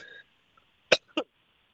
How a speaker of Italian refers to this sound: ho avuto un po' di tosse improvviso. Scusate con gli ascoltatori.